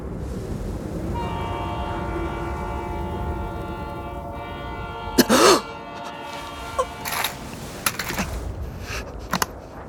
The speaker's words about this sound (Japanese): でもなぜだろうあの汽笛を聞くたびに涙がこぼれるここで聞こえるはずはないのにこの音は何だろう